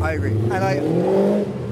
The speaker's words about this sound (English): that guy in the souped up, what is it, Mustang, Corvette, Corvette yeah.